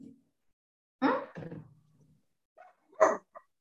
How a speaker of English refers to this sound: Sorry, wait, my dog is barking.